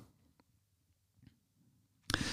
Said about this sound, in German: Hast du gehört jetzt gerade, wie ich dabei, wie mir dabei Wasser im Mund zusammengelaufen ist?